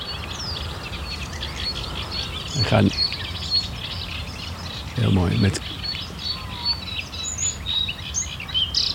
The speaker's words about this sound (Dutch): Hier, daar hoor je een, een eh, blauwborst. Hier. Ja. Deze. Dit, is een blauwborst, ja. daar word je helemaal blij van, van dat beestje. Dat is een, die heeft een beetje rood en een blauw keeltje. En dan zit nog een klein wit stipje in.